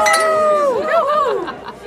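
Glasses clink together as a group of women make a toast, leaving a bright ringing tone, as several voices cheer and chatter loudly over it.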